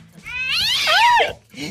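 A cat lets out one long, drawn-out meow with a rising and falling pitch, followed by a brief second meow, fairly loud with no talking.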